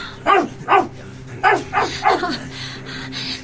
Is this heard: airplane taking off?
no